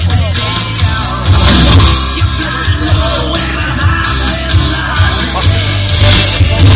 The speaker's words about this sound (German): Also es ist ein Höllenlärm hier im Stadion.